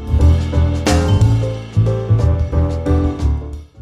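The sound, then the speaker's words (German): Singing bowls ring out loud, struck several times in succession so the rich, humming tones overlap and swell without any voices. “Der Klang einer Klangschale.”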